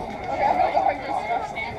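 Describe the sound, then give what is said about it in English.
A steady murmur of many people talking at once as they sit around eating outdoors in Jardine, Montana, a continuous crowd babble with no single voice standing out, moderately loud throughout. “There's a lot of crowd here, and everybody's sitting around eating, as you probably can hear in the background.”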